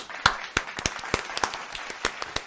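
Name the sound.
applause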